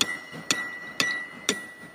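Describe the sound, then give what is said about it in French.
A blacksmith's heavy hammer strikes a piece of fire-heated iron on an anvil: five sharp metallic strikes spaced evenly about half a second apart, each leaving a bright ringing tone that lingers between hits. “Lorsqu'il a mis son morceau de fer au feu, il juge sa température à la couleur du métal avant de le retirer, pour le frapper avec précision de son lourd marteau sur son éclume.”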